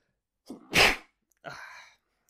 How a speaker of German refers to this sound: Moment, ich muss niesen. Oder auch nicht.